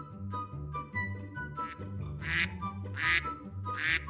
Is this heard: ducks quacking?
yes